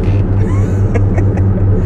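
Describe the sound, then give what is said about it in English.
A steady, heavy engine rumble fills a truck cab, broken by a few quick knocks and rattles as the rattling truck interior is struck to make it stop rattling. “just it's one of those trucks where you just have to like beat it, you know.”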